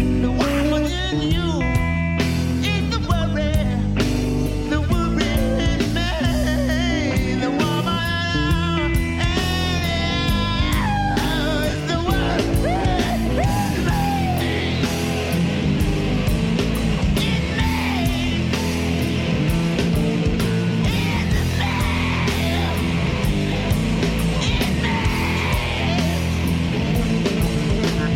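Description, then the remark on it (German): A wild electric guitar solo wails and bends over loud, dense rock backing at the end of a song, sustained at full volume for nearly half a minute with no talking. “Wir hören mal kurz rein in die wilden Gitarren-Sound-Eskapaden am Ende des Stücks.”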